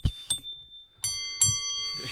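A small bell is struck about four times at an uneven pace, each strike leaving a bright, high, sustained ring that lingers and overlaps the next. No one speaks.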